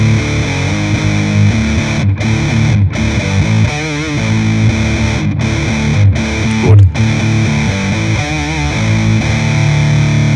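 An electric guitar played through an overdrive distortion pedal that is not built as a high-gain pedal, continuously at a steady, loud level, thick saturated chords with a few brief gaps where the notes cut off, no voices.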